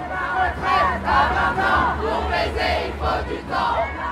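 A large crowd chants in rhythmic unison at a protest march in Paris, loud, with swells of many voices repeating a slogan over a low street rumble.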